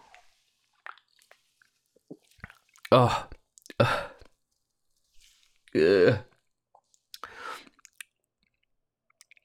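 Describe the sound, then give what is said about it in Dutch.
Sipping and swallowing of a lemon isotonic drink, with small wet mouth clicks and a few louder gulps, while a voice lets out brief satisfied exclamations between sips. “Ik ga nog even een slokje nemen.”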